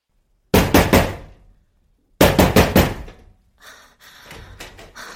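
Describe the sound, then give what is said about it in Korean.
A man from the flat across the hall knocks loudly and forcefully on a front door in two quick bursts of about four raps each, followed by a softer, rattling scuffle at the door. “근데 정말 나올 때까지 문을 두드리는 거야.”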